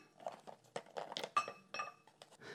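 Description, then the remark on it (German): Colorful stones of various sizes clatter and clink into a glass jar in a quick, irregular series of hard knocks with a few ringing glassy tones, moderately loud, with no talking. “Ich habe hier ein Glas und dieses Glas befülle ich mit Steinen.”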